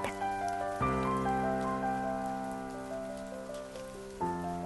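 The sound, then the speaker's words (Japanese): Steady rain patters on a surface in a dense, even hiss, mixed under sustained, slowly shifting musical chords that dominate the foreground. No one speaks. “私は上を見上げる雨粒が目に入った”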